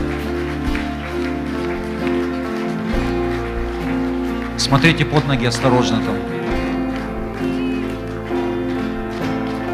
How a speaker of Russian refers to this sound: Давайте еще дадим аплодисменты, пожалуйста, проходите.